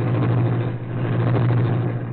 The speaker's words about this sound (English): Though supposedly abandoned, this building served as the hiding place for the sleek, superpowered Black Beauty, streamlined car of the Green Hornet. Britt Reed pressed a button. The great car roared into life.